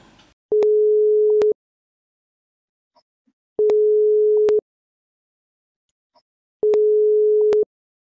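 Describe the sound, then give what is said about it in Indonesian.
A telephone ringback tone sounds three times as someone places a phone call to a friend, each steady electronic tone lasting about a second with roughly two-second silent gaps between, clear and fairly loud with no voices. “Gue pengen telepon Aji nih. Kita melalui sambungan telepon dulu ya.”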